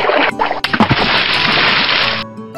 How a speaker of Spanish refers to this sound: Pero cuando nuestro amiguito perro abrió el hocico, el hueso que llevaba se cayó al río